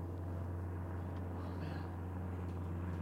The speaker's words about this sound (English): There are some helicopters these days.